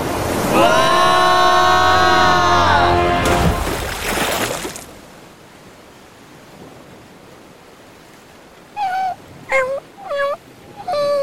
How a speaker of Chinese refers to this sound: 小狗害怕地叫了起来。